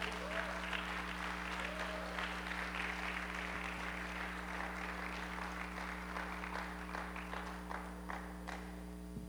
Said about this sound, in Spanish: ¿Alguien puede aplaudir a ese Salvador?